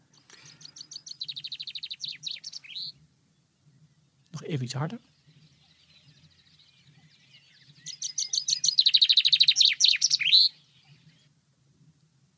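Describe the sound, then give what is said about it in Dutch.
A chaffinch sings two loud bursts of rapid descending trills, each ending in a flourish, separated by a brief spoken phrase and a low steady hum underneath. “daar zie ik een vink zitten. Klopt. Uh, echt een prachtige vogel en hij zingt nog mooier.”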